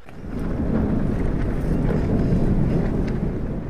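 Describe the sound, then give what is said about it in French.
Fabric flapping hard in the wind, a dense, rumbling flutter with rapid irregular snaps, steady and loud for the whole stretch, over a constant roar of wind noise and no voices. “Et puis il y, a, tous ces tissus qui battent au vent et le, lieu parle, le lieu raconte, le lieu a, beaucoup de, de, toute façon, il, y a, des bruits toujours partout, mais là particulièrement, c'est extrêmement sonore.”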